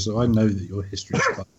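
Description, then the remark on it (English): A female dog barks somewhere in the background of a living room, its yaps partly buried under people talking into the microphone, with a steady low hum running underneath. “and if you hear the dog in the background, I'm really sorry, but I'm recording from my living room today, and she's a cunt.”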